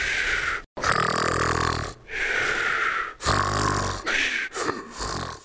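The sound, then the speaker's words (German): Loud, rasping snores of a fat ogre rumble in a slow series of long bursts, each followed by a brief pause for breath, heavy with no talking. “Der fette Oger schnarchte weiter aus vollem Hals vor sich hin.”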